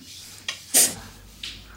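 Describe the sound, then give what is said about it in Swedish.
A bottle is pried open with a bottle opener: a few brief scraping clicks and one louder crisp release with a short bright hiss, no talking. “Och här får du en öppnare till flaskan.”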